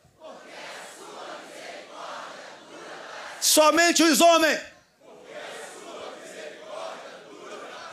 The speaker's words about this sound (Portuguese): Mais uma vez. Grito de guerra.